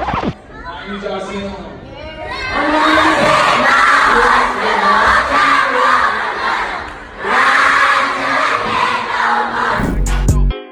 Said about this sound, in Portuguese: Esse coro gigante que vocês escutaram foi de uma plateia inteira de crianças do ensino fundamental norte-americano